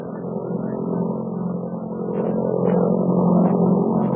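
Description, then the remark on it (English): A steady, heavy airplane engine roars continuously, a low droning rumble that swells slightly louder partway through and stays constant, with no voices. It is the Hennick plane roaring through the sky in flight. “As the Hennick plane roared through the sky, our friend suddenly spotted a squadron of invader pursuit ships.”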